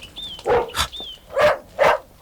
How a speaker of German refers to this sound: Hunde? Sind die, sind die hinter der Mauer?